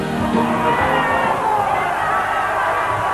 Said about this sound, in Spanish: Explotó, explotaron los partidarios de la alianza en un solo grito. Saltan, gritan, aplauden, están reunidos en el salón de invitados y ahora son ellos los protagonistas.